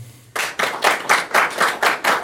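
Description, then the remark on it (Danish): An audience claps together in a loud, rhythmic burst of about eight broad, evenly spaced claps, as if clapping in unison, with no voices over it. “så dem, der synes, at vi skal, i stedet skal læse Joe Waltons Among Others, de skal klappe nu.”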